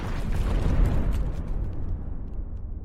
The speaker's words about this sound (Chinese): 他们正准备打开后备箱看看里面到底是什么东西呢。就在这时，一团红色的火光冲了出来，随即而来的是一声剧烈的爆响。